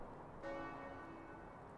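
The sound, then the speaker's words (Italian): A distant church bell tolls midnight on a snowy night, one soft, resonant hum lingering and slowly fading against a quiet background. “In lontananza, Santa Lucia sentì le campane suonare la mezzanotte.”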